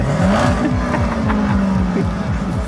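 A car engine revs up close and loud, its pitch climbing then holding at a steady high drone with a pulsing, throbbing rumble underneath, continuous throughout with no voices.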